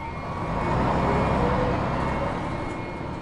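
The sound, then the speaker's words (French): A bus engine rumbles as the bus rolls slowly to a stop at a bus stop on a road in the Donbass, Ukraine, creaking in all its parts, with a thin, steady squealing creak riding above the low droning noise. “Le bus a roulé tranquillement jusqu'à l'arrêt et après avoir grincé de toutes ses pièces, s'est immobilisé.”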